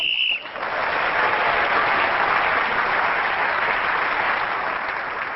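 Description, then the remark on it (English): A short, steady high-pitched whistle blast ends a round of a panel game while Tony Hawks is speaking, then a crowd breaks into loud, sustained applause that carries on to the end. “So Tony Hawks was again speaking as the whistle went again, the extra point for doing so, and he has increased his lead at the end of the round.”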